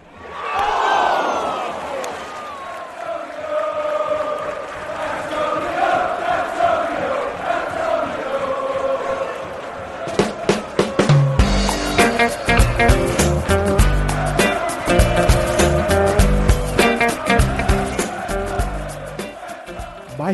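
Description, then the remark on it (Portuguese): A football crowd chants at the Hawthorns stadium, a sustained mass of voices singing together; about halfway through, loud rhythmic clapping or banging joins in, making the noise denser and more percussive. “Ambiente lá no Hawthorns.”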